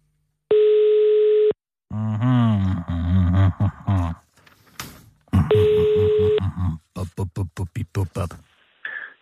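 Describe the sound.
A telephone ringing tone sounds in two long, steady buzzing bursts about a second each, then a voicemail greeting answers, talking between and after them, followed by a brief faint tone at the end.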